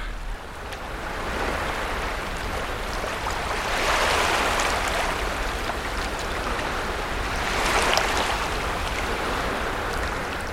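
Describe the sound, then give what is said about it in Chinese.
Small waves wash over a beach with a steady hiss of churning seawater swirling and flowing between rocks, and two gentle swells rise and fall about four seconds apart. No voices are present. “这个沙滩的声音有小的浪。有海水在岩石之间涡流转动、流动的呃声音，也还有比较大的沙滩的浪。”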